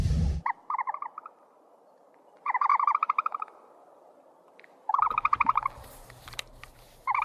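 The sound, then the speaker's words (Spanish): An ostrich calls in three separate bursts of rapid, rasping, chattering pulses, each lasting about a second. The calls are clear, with a faint low rumble underneath near the end. “Em, es una avestruz, una de las aves más hermosas, grandes del mundo, por, supuesto.”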